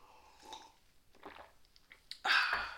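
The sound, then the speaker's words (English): Quiet mouth sounds of someone sipping coffee, a few soft slurps and swallows, ending in a louder breathy exhale. No talking. “I'm just gonna take a sip of coffee because I have a tickle in my throat.”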